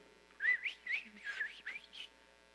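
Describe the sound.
A person whistles a quick run of about five gliding, rising and falling notes, like speech rendered as whistled phrases. It is clear and moderately loud, with no talking.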